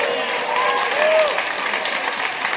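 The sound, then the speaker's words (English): Steady audience applause for an astronaut guest who flew twice on the space shuttle, repaired the Hubble Space Telescope and was the first person to tweet from space. A dense wash of many hands clapping fills the whole clip at an even, fairly loud level, with a few faint cheers or whistles rising briefly within it. “I love that's what gets the, the applause.”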